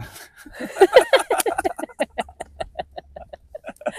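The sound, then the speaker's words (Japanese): A voice imitates a chicken clucking, first in a quick jumbled burst, then in a steady run of short, evenly spaced clucks, moderately loud. “鶏みたいな”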